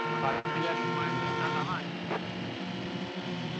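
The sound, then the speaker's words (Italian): Car engines in a racing audio game drone loudly and continuously, their buzzing whine rising and falling in pitch as the cars accelerate and shift through traffic in the difficult curves at the start of the game. “Esatto, c'è un po' di traffico nelle curve difficili all'inizio del gioco.”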